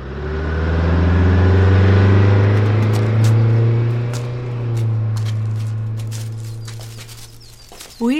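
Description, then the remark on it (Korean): A bus engine rumbles loudly, a deep steady drone that slowly fades as the bus pulls away from a quiet, little-used stop, while birds chirp faintly in the background. “시장에서 물건을 사고 버스를 잡아탔던 도로시와 노숙자는 인적이 드문 한 정거장에 내렸다.”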